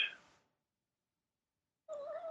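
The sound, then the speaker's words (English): A short burst of sound fades out, then after a moment of silence a cat lets out a clear meow that cuts off abruptly. No one speaks. “Except sure for the occasional will... cat wandering by.”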